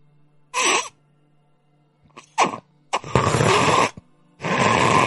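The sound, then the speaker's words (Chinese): A voice imitates cattle or horses drinking water with lips pressed tightly together: several breathy, hissing sucks in short bursts, the last two long and loud, with brief pauses between them and no speech. “有那种类似于啊，像是牛饮一般的声音。什么声音呢？我给你们模仿一下”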